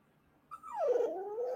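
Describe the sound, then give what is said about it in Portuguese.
A dog whimpers in one drawn-out, wavering whine that slides down in pitch and then holds, starting sharply after a brief quiet moment. “Sei que a … incorporou o cão aqui agora, meu pai.”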